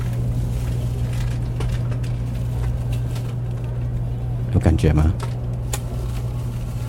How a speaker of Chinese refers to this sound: 其实，如果你戴着耳机，你会觉得你好像真的就坐在高铁里面，然后高铁真的在开的那个感觉，还蛮有临场感的。这都是我自己闲暇的时候录下来的一些声音，而且你看它开始加速了，感觉一下